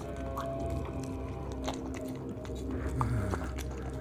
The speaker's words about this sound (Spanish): con una poderosa y precisa mordida, le arrancó carne y músculo de la espalda baja, mascándola como el mayor de los placeres jamás conocidos por el hombre. Tragó bocado, y enseguida remetió con una nueva mordida.